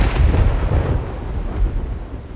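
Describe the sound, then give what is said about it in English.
A deep, rolling rumble of the first thunder of a storm, heard while walking around a lake, loud and sustained, with low booming swells that rise and slowly fade. No one is speaking. “And I heard the first thunder.”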